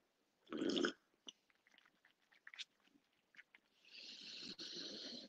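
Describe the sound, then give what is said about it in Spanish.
Mouth sounds of someone drinking water: a loud initial gulp, then scattered small wet clicks and swallows, ending in a longer steady slurping sip. No talking. “Venga, el agua me la tomo y mira,”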